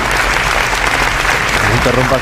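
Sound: parliament deputies applauding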